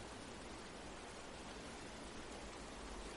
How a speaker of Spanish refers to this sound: Puedes oír este río de fondo que relaja todo tu cuerpo.